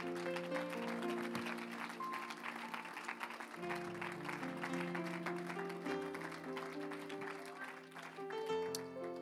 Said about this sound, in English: God bless you. Let's give that hand clap to God.